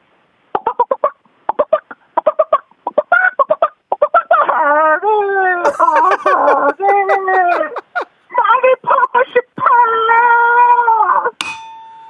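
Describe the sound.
A person's voice imitates a chicken crowing, in an impression that changes from chicken crowing into Kim Jang-hoon: a rapid series of short clucks, then long, wavering crow-like calls, loud, ending abruptly.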